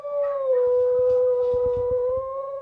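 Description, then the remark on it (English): Dooley the dog, back home on his favorite couch, howls in one long, steady, sustained note, fairly loud, responding to the sounds of the neighborhood, with faint thumping or rustling underneath partway through. No one speaks. “Although somewhat tired and 20 pounds skinnier, Dooley is back in familiar territory, on his favorite couch and once again responding to the sounds of the neighborhood.”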